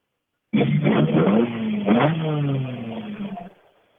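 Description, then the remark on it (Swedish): A number 54 bus drives past, its engine droning for about three seconds, the rumbling tone rising and shifting in pitch as it accelerates, fairly loud, then cutting off fairly quickly. No voices are heard. “54 åker förbi, vill inte prata för fem öre.”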